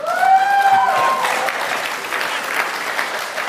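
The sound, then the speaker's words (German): An audience breaks into steady, dense applause, loud, with a brief cheer riding over the clapping at the start before it settles into even, sustained clapping. “Die haben alle die Eier jetzt zu klatschen”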